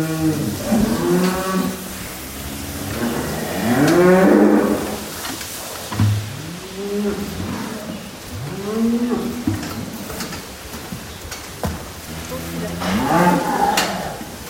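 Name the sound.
cows mooing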